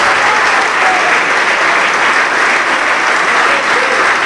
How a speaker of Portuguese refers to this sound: E vamos aplaudir ao Senhor Jesus por cada vida que está chegando. Vamos aplaudir, igreja, vamos aplaudir.